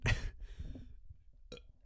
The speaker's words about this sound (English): oh hold on, hold on, hold on. I burped again.